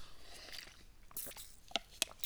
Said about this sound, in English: And excuse me, I had to drink some water there.